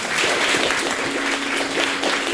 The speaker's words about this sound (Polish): Poproszę Was o gromkie brawa dla naszych dzisiejszych gości.